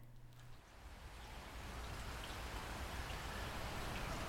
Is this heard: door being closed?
no